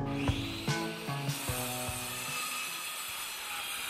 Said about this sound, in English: it wasn't until Casey was using a power tool